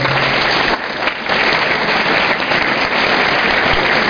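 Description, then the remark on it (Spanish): An audience bursts into loud, sustained applause, a dense wash of many hands clapping at once that stays steady for several seconds with only a brief dip in the middle. “Ok, ustedes se merecen un fuerte aplauso por eso.”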